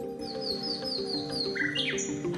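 A nightingale sings close by in a run of bright, sliding whistles and quick rising phrases, set against a steady, humming background drone; no one speaks.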